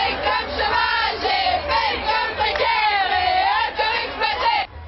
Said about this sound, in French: Des slogans déjà bien rodés et des jeunes plus que jamais motivés. Cet après-midi à Paris, ils étaient plusieurs dizaines de milliers convaincus que le mouvement est loin de s'essouffler.